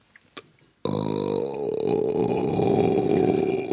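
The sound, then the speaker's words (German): A long, loud burp erupts close to the microphone after a brief quiet moment, a deep rumbling belch that drones on for about three seconds with a rough, guttural texture. “Äh, Entschuldigung, Erbrochenes in meinem Gehörgang finde ich uncool.”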